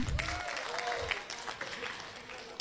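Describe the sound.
A group of people claps steadily, a dense, even patter of applause lasting a few seconds, with faint voices mixed into the clapping.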